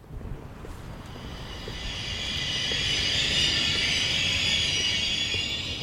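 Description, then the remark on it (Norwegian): Freshly washed trams roll along their tracks outside Nationaltheatret station in eastern Norway on a grey, dreary day, with a steady rumble and a rising high-pitched metallic hiss from the wheels, growing louder and holding near the end. No one speaks. “Utenfor Nationaltheatret stasjon så gikk norske barnehagebarn på bytur rundt i refleksvester, og de nyvaska trikkene kjørte langs trikkesporene.”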